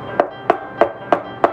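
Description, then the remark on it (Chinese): Five quick, evenly spaced knocks rap on a wooden door, each a sharp, clear thud in a steady, insistent rhythm with no voices, as a cat that has been waiting at the door knocks impatiently. “猫咪在门口等了一会儿，又不耐烦地敲了敲门。”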